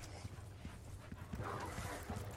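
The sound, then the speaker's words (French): Dogs bark repeatedly in short bursts, sounding somewhat muffled over a steady background rumble, with no one talking. “Les chiens.”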